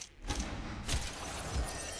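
A glass bottle is smashed into a character's face in a video game: a sharp, bright shattering burst, then a second crash and a few dull low thuds, moderately loud, with no talking.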